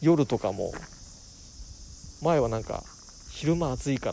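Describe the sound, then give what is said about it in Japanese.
Bell crickets chirp at night at the end of summer in a steady, high-pitched chorus that runs unbroken through the whole stretch, a moderate background layer under a person talking intermittently in the foreground. “今はもうスズムシみたいな感じでチロチロって感じのが夜になると聞こえてきてセミは聞こえなくなったみたいな感じでもう季節がね移ろいでいくわけですよ”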